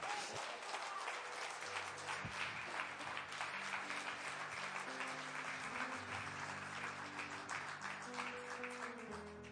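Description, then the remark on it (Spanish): An audience applauds steadily for the whole stretch, dense clapping holding an even loudness, with sustained low musical tones from an instrument droning underneath. “Ahora sí, con el aplauso más de uno.”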